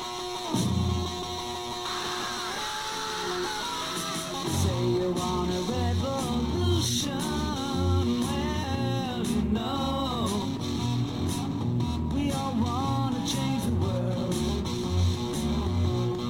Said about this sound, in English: hear that wild, violent, abrupt, chaotic sound in the beginning, that heavy triplet guitar solo, and then that scream.